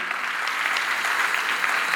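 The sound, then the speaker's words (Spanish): A church audience at its last morning service of the year applauds everyone present, many hands clapping in a dense, continuous wash of crisp claps at an even, moderately loud level, with no speech over it. “Un aplauso a todos ustedes que están aquí en esta mañana.”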